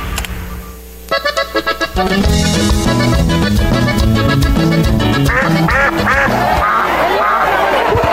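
A loud duck quacking sound effect: a few short quacks, then a dense, continuous run of raspy, nasal quacks that keeps going to the end, with no talking.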